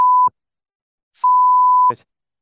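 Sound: censorship bleep tone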